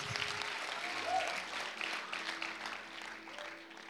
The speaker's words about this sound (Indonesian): Kalau kau terberkati tepuk tangan yang kenceng untuk Yesus.